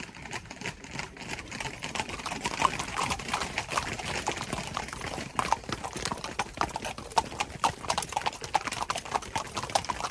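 Horse hooves clip-clop steadily on a hard surface for the whole stretch, a brisk, continuous patter of sharp knocks, moderately loud, with no voices.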